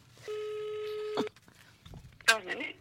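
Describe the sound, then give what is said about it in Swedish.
A single steady, buzzy ringback tone plays for about a second as a phone call is placed, then stops; brief talking follows after a short pause. “Ja, så jag tänkte att vi skulle ringa”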